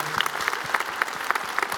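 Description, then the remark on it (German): An audience claps steadily, many hands making a dense, bright patter with a few sharper individual claps standing out, sustained at moderate loudness with no voices on top. “Also ich denke, die haben einen Applaus verdient, die sehen echt stark aus.”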